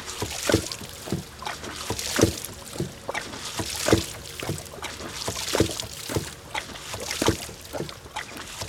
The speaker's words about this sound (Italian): Adesso ci troviamo davanti al nostro ariete idraulico che è una pompa autonoma di acqua e gli arieti idraulici sono le macchine più semplici per sollevare l'acqua senza usare la corrente oppure anche carburante